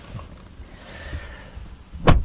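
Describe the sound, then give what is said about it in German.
A car door is pulled shut from the inside by a person in the left-side seat, landing with a single solid thud near the end, after a couple of seconds of quiet interior rustling and a faint mechanical whine. “Um die Tür zu schließen, muss ich mich verrenken,”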